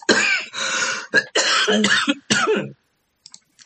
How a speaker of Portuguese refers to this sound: Pera só um minutinho, gente, eu vou tossir.